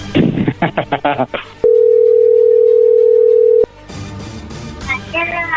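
A phone call ringing out: one steady, mid-pitched ringback tone holds for about two seconds, loud and unbroken, with people talking before and after it.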